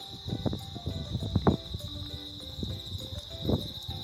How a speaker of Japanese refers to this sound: ただまあ相変わらずスズムシの声は非常に元気で元気にいつも通りリンリンリンリン泣いていますけど聞こえますかね多分バックで聞こえますよね本当はあのこの時間帯というか一日中なんですけど家の窓閉めててもこのスズムシの声ずっと聞こえるんですよ。